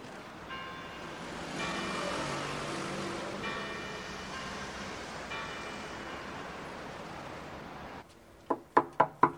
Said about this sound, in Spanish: El empleado del hotel golpea en la puerta de la habitación